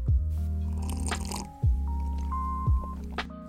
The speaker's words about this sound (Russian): Слегка прихлебываю, ведь если я буду торопиться, то просто обожгу себя кипятком.